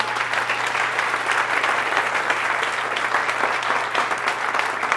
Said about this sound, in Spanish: Muchas gracias, pero de verdad no me, no me tienen que aplaudir.